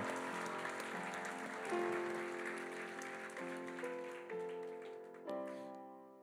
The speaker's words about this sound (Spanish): Un aplauso más para Él. Amén.